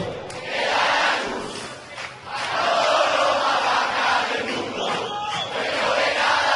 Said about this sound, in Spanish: el aplauso para Gaby.